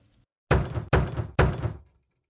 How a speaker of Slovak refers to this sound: Keď sa ozve zaklopanie na hlavné dvere od domu, Doris v sebe má už pol fľaše lacného vína.